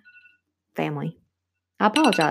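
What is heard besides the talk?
phone alarm ringing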